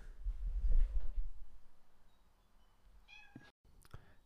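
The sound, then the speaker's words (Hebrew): A hungry cat meows insistently outside the door, with a drawn-out wail followed by shorter, higher cries and low thumping noise; no one speaks. “טוב, אז אנחנו נאלצנו לעשות אה, עצירה מתודית עקב אה, חתול רעב שלא הפסיק ליילל אה, מחוץ לדלת, אבל חזרנו, אנחנו פה”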